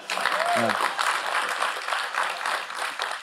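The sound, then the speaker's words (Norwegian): A live audience applauds a singer steadily throughout, a dense, even wash of clapping, with a brief voiced cheer or call rising out of it near the start. “Ja, klapp gjerne. Det har han fortjener”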